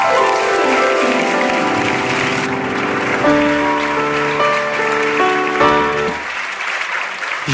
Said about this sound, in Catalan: Un aplaudiment per